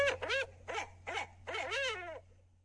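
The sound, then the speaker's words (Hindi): An owl hoots in five quick, wavering calls in a burst, sounding slightly tinny as if through a phone line, with a steady low hum underneath and no talking. “अरे मैं तो भूल गया था तुम मेरी तरह उल्लू थोड़े ना हो जो मेरी भाषा समझ जाओगे”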